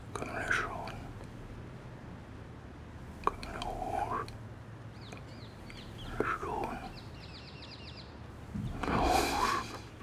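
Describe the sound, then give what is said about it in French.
A man whispers indistinct words to the wind like a mantra in several short, soft, breathy bursts, with faint bird chirps twittering in the background between phrases. “Depuis quelque temps déjà, on dirait qu'il chuchote au vent, comme un mantra.”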